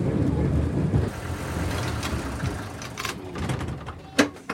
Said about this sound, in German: Aber wenn, wenn sich das Schienenfahrzeug hier, dieser Schienenbus schon fährt wie ein Auto, warum soll er auch nicht Fenster haben wie ein Auto?